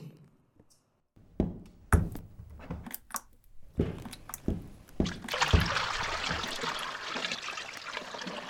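A series of sharp knocks and clanks, then water begins running from a faucet in a steady trickle that continues to the end. No one speaks.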